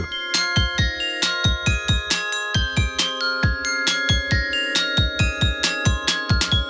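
A bright metallic melody of struck bar notes rings out in a quick, bouncy pop rhythm, each note chiming and decaying over a steady plucked bass pulse, loud and close with no voices.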